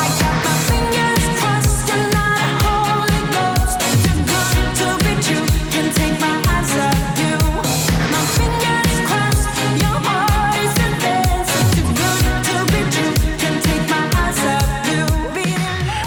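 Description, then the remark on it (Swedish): A recorded pop song released in 2020 plays at full, steady volume, driven by a regular thumping beat with layered synths and bright, busy instrumentation throughout, with no talking over it. “Det här är en alldeles ny låt från 2020, det vill säga förra året.”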